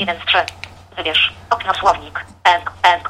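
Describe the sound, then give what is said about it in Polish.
A synthetic text-to-speech voice reads out the language code 'ENG ENG' in clipped, evenly spaced bursts after the source language is set to English in a translation app, sounding thin and phone-like over a faint steady low hum. “Słyszymy, TOX odczytuje ENG ENG.”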